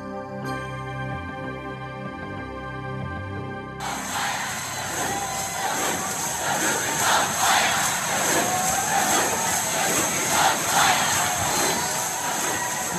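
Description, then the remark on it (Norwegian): A huge stadium crowd at the opening ceremony of the Commonwealth Games in Glasgow cheers wildly in a continuous, roaring wall of noise with rising swells, after a few seconds of tonal music that cuts off abruptly. “dere hører her, er eh, vill jubel i Glasgow i forgårs under åpningsseremonien til Samveldelekene.”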